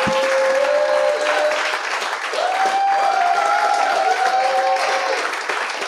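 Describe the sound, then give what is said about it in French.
Sustained audience applause for guests being introduced, a dense, steady wash of many hands clapping at full volume for several seconds, with faint tonal music or cheering tones drifting through the noise. “Mesdames et messieurs, j'aimerais ça qu'on leur donne une bonne main d'applaudissement.”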